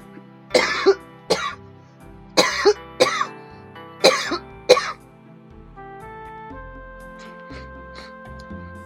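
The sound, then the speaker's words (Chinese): A run of harsh, loud coughs from a person with a recent cold comes in several quick clusters over a few seconds. Afterward it falls quiet except for a soft, steady tonal hum, with no one speaking. “抱歉，我想咳嗽一下，有点感冒最近。”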